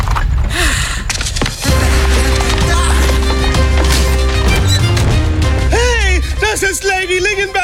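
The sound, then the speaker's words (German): A horse-drawn carriage rolls along with steady, loud clip-clopping hooves, mixed with busy background noise and voices, and a horse-like whinny rising near the end. “Marys Kutsche. Die wollte ich doch klauen.”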